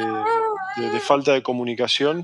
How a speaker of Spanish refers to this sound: Este, si, si escuchan los llantos de fondo, tenemos nueve hijos entre todos, así que no nos hagamos problema por los ruidos, es algo natural.